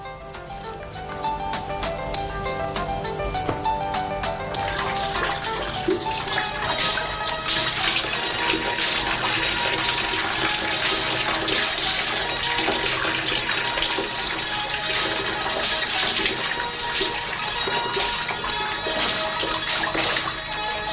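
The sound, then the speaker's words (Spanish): A shower runs steadily, its water hissing and splashing in a continuous rush that starts within the first second and carries on without a break, with no one talking. “Se mete en la ducha.”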